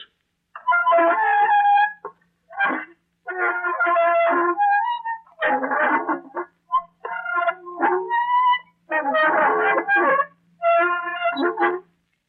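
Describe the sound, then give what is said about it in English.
Magnified creaking of a rusty door hinge: about eight drawn-out, squealing groans with a wavering, harmonic pitch, each separated by brief pauses, loud and with no voices. “That was the magnified sound of a rusty door hinge, like one on an unlatched door swinging gently in a breeze.”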